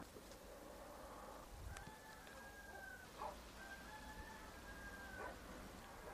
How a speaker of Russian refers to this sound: Не знаю, слышно ли вам, но там где-то запели петухи. У нас же все-таки как бы относительно сельская местность.